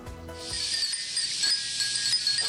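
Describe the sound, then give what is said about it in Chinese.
Hundreds of glass wind chimes hung at a shrine in Kagawa Prefecture, Japan, tinkle in summer under a clear sky: a continuous, shimmering wash of bright, high-pitched rings, with scattered clear pings rising above a steady airy hiss. “还有神社挂了四百个玻璃风铃，让造访的旅客暑意全消”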